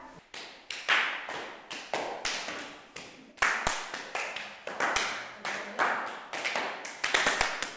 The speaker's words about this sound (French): On fait le clap, on fait passer le clap.